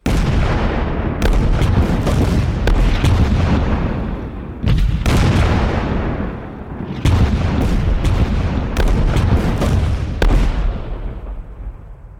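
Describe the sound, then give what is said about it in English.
A heavy artillery barrage during an advance on Mount Kosich rolls on continuously, with deep booming explosions in repeated waves, sharp cracking blasts cutting through a constant low rumble, loud, fading slightly at the end. “The men felt the earth begin to rumble as the artillery started to come alive.”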